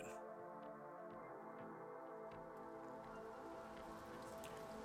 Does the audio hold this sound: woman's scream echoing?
no